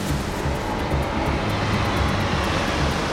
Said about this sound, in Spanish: ¿Quién está en el helicóptero?